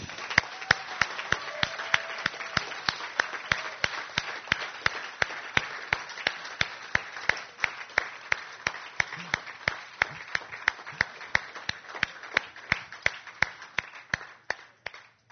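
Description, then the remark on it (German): An audience at a church service applauds Jesus for about fifteen seconds, a dense wash of crowd clapping with sharp, evenly spaced claps keeping a steady beat throughout, tapering slightly at the end. “Und wie wäre es, wenn wir den mal besonders begrüßen, weshalb wir eigentlich heute hier sind, nämlich Jesus selber, und dass wir ihm mal einen kräftigen Applaus geben.”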